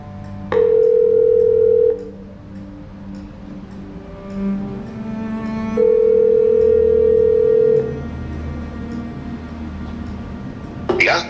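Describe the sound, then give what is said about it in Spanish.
An outgoing call's ringing tone: two long, steady beeps about two seconds each, separated by a pause with faint background murmur, ending with a click as the line picks up. “Pues venga, vamos a darle un toque.”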